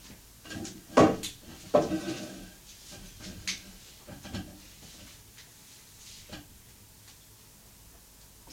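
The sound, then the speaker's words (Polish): Sharp mechanical clicks from a cassette deck's pause, start and stop buttons, a few distinct clunks spaced over several seconds with quiet stretches between them. “Teraz włączę pauzę. Wyłączyłem pauzę. Stop. Teraz był start z powrotem i stop już całkiem.”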